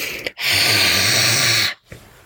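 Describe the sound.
A person imitates the hiss of a cat named Ripley hissing at them in a guest bedroom: a single loud, sustained breathy hiss lasting over a second, with a quick sharp intake of breath before it and a softer breath after.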